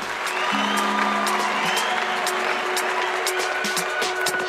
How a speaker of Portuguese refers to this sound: Assim terminamos esse primeiro episódio. Uma salva de palmas,